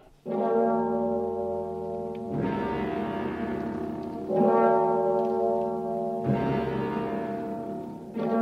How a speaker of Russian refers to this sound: И тотчас грянули колокола, и заиграла хриплая музыка.